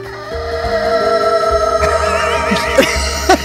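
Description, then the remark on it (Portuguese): A rooster crow sound effect played in a studio, drenched in a delay echo, its drawn-out harmonic call smearing into overlapping repeats that wobble and stack up over a few seconds, loud and processed-sounding. “Ou põe a versão delay também, ó.”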